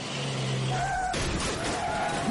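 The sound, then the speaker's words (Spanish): A car, its loud engine droning with a rising whine, then a sudden burst of broad noise partway through as the roar carries on to the end. “Coche.”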